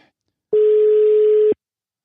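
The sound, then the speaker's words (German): A single telephone ringing tone as a call is placed to a coach: one steady, mid-pitched electronic beep lasting about a second, loud, with silence before and after and no voices. “So sieht's aus und deshalb würde ich sagen, rufen wir mal beim äh, Trainer an.”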